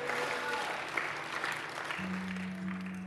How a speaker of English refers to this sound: so yeah can we just give that a round of applause like that's amazing